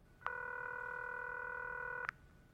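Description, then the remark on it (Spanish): A telephone tone sounds as Peter Thiel dials Elon Musk's number: one steady, bright electronic chord held for about two seconds, with a soft click at its start and end, no voices. “Se traga su orgullo y marca el número de Musk.”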